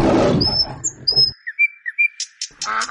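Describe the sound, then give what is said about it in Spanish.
Small birds chirp and whistle in short, high-pitched bursts, a few clear tweets repeating over a low rumble at the start, with no one speaking, played as background on a radio show. “Mira lo que te puse de fondo. Tus pajarillos”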